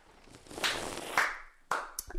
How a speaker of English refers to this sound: that clapping, that clapping.